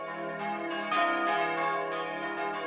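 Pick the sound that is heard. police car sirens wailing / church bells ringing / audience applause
church bells ringing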